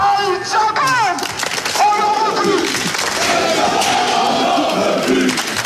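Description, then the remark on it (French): A large crowd of SCO football supporters of the Cop Angevin shouts and jeers loudly and continuously while lighting flares and fireworks, protesting against club president Saïd Chaban, with raised voices overlapping into a dense, agitated roar and occasional sharper cries rising above it. “C'en est trop pour les supporters du Cop Angevin qui allument une dizaine de fumigènes, des feux d'artifice”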